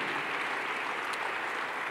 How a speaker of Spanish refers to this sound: Podemos dar un fuerte aplauso a nuestro Dios. Amén.